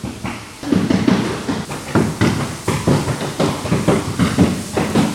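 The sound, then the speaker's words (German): Repeated dull thuds of a rubber mallet striking in quick, uneven succession, loud, with a steady industrial hum underneath and no voices, as stiffening elements are hammered into place in a routine production process. “Nein, das ist äh, einfach das Einbringen äh, von Versteifungselementen mit einem Gummihammer äh, ist ein ganz normaler Prozess.”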